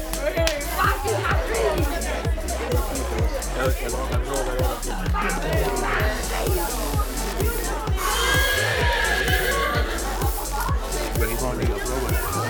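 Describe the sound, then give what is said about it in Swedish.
A quiz show audience cheers and chatters loudly throughout after a correct answer, with steady rhythmic clapping running under the dense, excited noise of many voices. “Publikens jubel blev det.”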